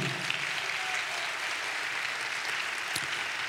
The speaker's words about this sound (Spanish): Eso, denle un aplauso al Señor.